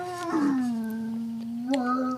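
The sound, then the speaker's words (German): A dog howls in one long, steady, tonal note that dips slightly lower, then rises briefly near the end before cutting off. It is clear, with no talking over it. “Ich glaube, dein Hund hat auch Lust auf den Wein.”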